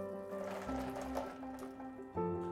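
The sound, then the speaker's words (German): Six gelatine sheets for a strawberry jelly being pressed into a bowl of ice water, with soft sloshing and squishy liquid sounds over a steady background hum, no one talking. “Also die Gelatine machen wir in Eiswasser.”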